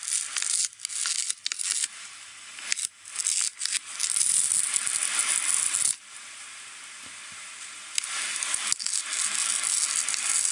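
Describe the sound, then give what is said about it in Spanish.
Crackly, crinkling tape sounds in an ASMR-like song, like adhesive tape being pulled and rustled, run almost continuously for about ten seconds in bursts with brief gaps, bright and hissy with little low end and no voices. “Eso este se llama como sonidos de eh, cinta.”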